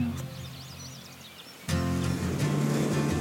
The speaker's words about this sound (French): J'aime bien venir observer les oiseaux ici, puis euh, d'ailleurs, on les entend.